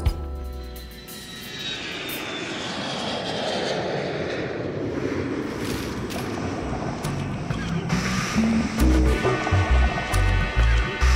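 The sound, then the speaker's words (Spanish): An airplane taking off: a loud, steady roar of engines builds, with a high whine sliding through it, and a few thumps and tonal sounds join near the end. “Para tener un viaje placentero con nosotros, les recomendamos ponerse cómodos, solicitar su trago de cortesía, cerrar los ojos y disfrutar de este vuelo especial por el primer aniversario de Música para Volar. Despegamos.”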